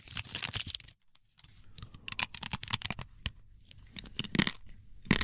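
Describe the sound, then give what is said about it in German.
Continuous crinkling of a thin paper Magnum ice cream wrapper, with crisp irregular crackles and rustles that rise and fall, briefly pausing before resuming louder. “Papier. Dieses dünne”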